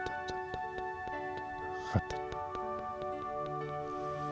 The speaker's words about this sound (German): Du hörst nur noch das Rattern des Projektors. Ratter,